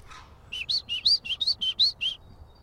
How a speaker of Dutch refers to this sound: Koolmeisje. Hier zit hij, lekker te zingen. Kijk, dit, hier, recht boven ons. Luister. Ja. Dat is een koolmeis. Een kan heel veel verschillende geluidjes maken, maar dit is er één van.